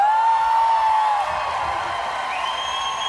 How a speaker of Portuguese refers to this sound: Gente, eu quero ouvir muitas, muitas palmas e muitos gritos para um dos melhores padres desse Brasil,